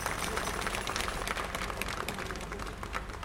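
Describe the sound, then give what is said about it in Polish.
A crowd applauding outdoors at a square as it is given its name, recorded through a microphone put out of a window: dense, steady clapping with a crisp, crackling texture that holds at an even level for the whole few seconds, with no voices standing out. “Wystawiłem y, mikrofon przez okno, było bicie brawa w plenerze, to też jest charakterystyczny efekt.”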